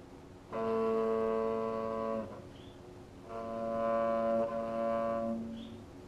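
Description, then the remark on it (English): Two long, sustained bowed string notes played live on a string instrument, each held for about two seconds with a short pause between them, rich and steady in tone, with no talking. “Here, we, I, I listen to the instrument that tells me, you know, here is the correct, uh, the correct uh, sound.”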